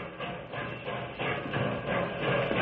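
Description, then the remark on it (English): The noon train, the Milk Run special to Knotty Pine, rumbles in with a steady, churning roar that swells gradually louder, with no voices over it. “Here comes the Milk Run special, Bill.”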